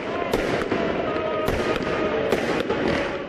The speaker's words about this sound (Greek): με πάνω από 15.000 από τους σχέδιες ρουκέτες να μεταφέρουν το χαρμόσυνο μήνυμα της Ανάστασης.